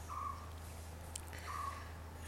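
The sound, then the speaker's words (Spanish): Two short, thin chirps from small birds on a terrace in India sound about a second apart over a steady low background hum, with a faint click between them and no one speaking. “Aquí hay pajaritos, hay... La India siempre está llena de, sonidos y ya estoy extrañando mi terraza.”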